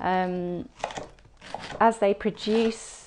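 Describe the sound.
Quick, crisp knife chops through cabbage on a cutting board, cutting it small, with someone talking over the cutting throughout.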